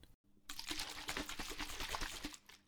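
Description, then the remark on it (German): Liquid sloshes back and forth inside a closed shaker as a greens drink powder mixed with 200 ml of water is shaken, a rapid rhythmic swishing that lasts a couple of seconds, fairly loud, with no voices. “Aufreißen, reinschütten, 200 Milliliter Wasser dazu, schütteln,”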